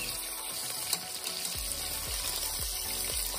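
Steady, dense sizzling and crackling of pieces of meat browning in hot fat in a pot, a continuous hiss with scattered pops and a few low thumps, moderately loud, with no voices.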